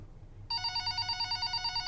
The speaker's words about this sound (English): phone rang three more times as we sat across the desk in my office, trying to figure out what to do.